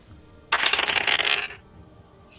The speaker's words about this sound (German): Okay, dann würfel Angriff mit dem W20.